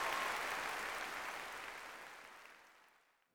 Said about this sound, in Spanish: Recibamos con un aplauso al alienígena